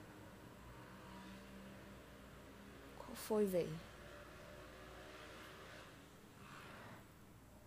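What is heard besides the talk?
motorcycle engine passing outside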